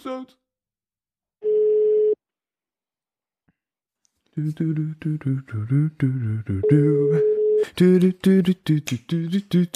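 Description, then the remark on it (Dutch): Telephone dialing tones: a brief steady electronic beep sounds alone, then after a pause another held tone plays amid a dense, busy stretch of clicks and rapid tonal blips. “Bel episode.”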